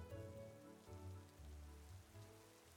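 Pouring rain at sunset falls in a steady, continuous wash of patter on a surface, soft and even throughout, with no voices present.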